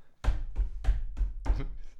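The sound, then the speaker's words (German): A hand slaps a table five times in a quick, steady rhythm, each hit a loud, dull thump with a bassy body and a brief papery splash, with no talking. “Boah, ist das schlecht versucht auf den Tisch zu klatschen, dass es so weggeht”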